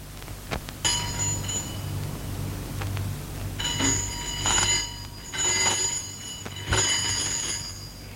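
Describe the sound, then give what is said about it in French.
An apartment intercom buzzer rings in several bright, bell-like bursts with short pauses between them, clear, as a taxi driver calls up, with a low hum in the background and no voices. “La sonnerie de l'interphone a retenti.”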